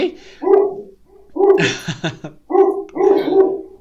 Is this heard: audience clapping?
no